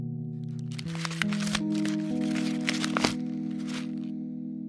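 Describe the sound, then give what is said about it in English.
Crisp, irregular crackling and rustling of a crumpled paper note being picked up and uncrumpled, smoothed out by hand, fairly loud for a few seconds, over a soft, steady musical drone. “But right as I open the door, right in front of my feet, I spot my crumpled up paper. I stoop down, pick it up, and start to uncrumple it.”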